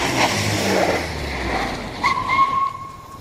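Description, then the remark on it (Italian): A heavy military truck engine rumbles and revs, a steady low growl, then a thin high whine or squeal rises briefly near the end as the truck advances amid a cloud of dust just outside a village, toward San Dono. “Appena fuori dal paese, verso San Dono e quasi alla casa dei Novello, tra un polverone, vediamo avanzare un automezzo.”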